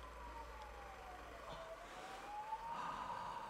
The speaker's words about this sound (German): Sie hören den Chor der Rückkopplungen.